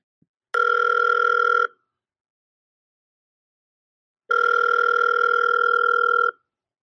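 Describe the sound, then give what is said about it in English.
A telephone ringback tone heard through the line: two steady, buzzy electronic tones, the first about a second long and the second about two seconds, separated by a long silence, with no talking. “because my phone bill's already shot up through the roof, so I'm gonna call you.”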